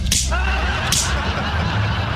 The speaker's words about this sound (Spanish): A ver, voy a dar las cachetadas y salgo corriendo.